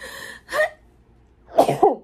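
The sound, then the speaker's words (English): A sneeze: a brief breathy intake and a small burst, then a pause before a louder, explosive release split into two quick bursts. “oh my God, I have to sneeze.”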